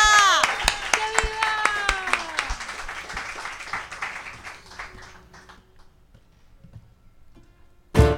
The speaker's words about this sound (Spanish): Así que, por favor, fuertísimo aplauso.